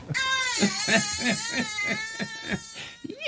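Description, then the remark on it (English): A baby whimpers and fusses in short, high, wavering cries that come in a steady run of little bursts, fairly loud and with no talking over them. “That's oh, right. Like a whimper.”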